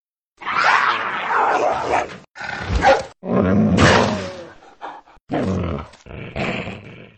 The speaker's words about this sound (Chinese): 任由狗咬，狗呢凶猛地撕咬着荣格，咀嚼着带血的肉块。四只狗专心致志地吃了起来，